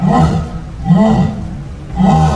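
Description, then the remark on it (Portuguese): A jaguar gives three deep, rasping roars in a steady rhythm, each grunt about a second apart, loud with no other sounds around them. “Esturra.”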